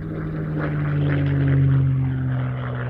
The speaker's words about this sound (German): Der Wind toste in ihrem Ohr. Aber das Brüllen des Windes war das Brüllen eines Flugzeugs.